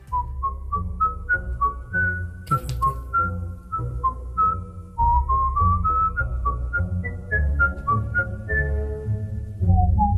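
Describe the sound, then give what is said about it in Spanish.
A whistled classical melody from a music video moves in quick stepping notes over a steady, full low accompaniment, loud, with no one speaking throughout. “podemos verte protagonizando videoclips de obras como La flauta mágica de Mozart o In the Hall of the Mountain King de Edvard Grieg”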